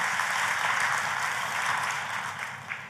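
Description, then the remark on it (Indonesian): Dense applause from a crowd clapping in praise of God, a steady wash of many hands clapping that holds for a couple of seconds, then gradually thins and fades. “Kita kasih tepuk tangan yang paling meriah buat Tuhan kita.”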